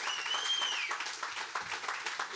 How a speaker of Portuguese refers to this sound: Eu queria que você desse uma salva de palmas. Aleluia!